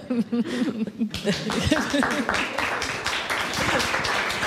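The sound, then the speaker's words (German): A voice speaks briefly, then a panel audience at Popkultur breaks into applause: many hands clapping in a dense, steady patter that continues loudly to the end, with faint chatter underneath. “Müsst jetzt nicht klatschen, aber.”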